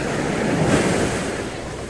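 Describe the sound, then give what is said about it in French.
Steady wash of sea waves on a beach, a broad hissing roar that swells slightly mid-clip and then eases, with a bit of wind buffeting and no voices. “La journée à la plage, elle est finie.”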